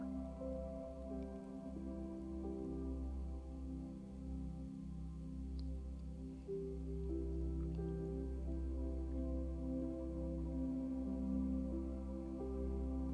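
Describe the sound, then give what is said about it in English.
Water flows steadily down a river's rock bed in a continuous, gentle cascade, with some rocks shifting and faint drips and splashes mixed into the soft, even rush. No voices, just the constant murmur of the stream. “You can hear the water gently cascading down the river's rock bed.”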